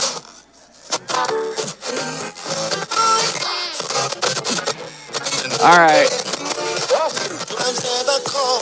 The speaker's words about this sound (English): Make that noise stop. All right. So that sound uh, is from an analog radio.